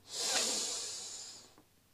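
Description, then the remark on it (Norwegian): A single deep, drawn-out breath in through the nose during a relaxation breathing exercise before sleep, a steady airy rush lasting over a second, with no talking. “Pust godt inn gjennom nesa.”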